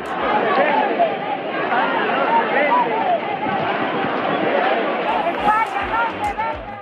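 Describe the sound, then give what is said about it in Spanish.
A large crowd of thousands of protesters in Spain, called out by the Partido Popular to demonstrate against the amnesty agreement for Catalan separatist leaders, fills the air with a dense, steady roar of overlapping voices and shouts, loud and unbroken for the whole stretch, with no single speaker standing out. “Esto fue lo que se escuchó ayer a lo largo y ancho de España, donde miles de personas convocadas por el Partido Popular salieron a manifestarse.”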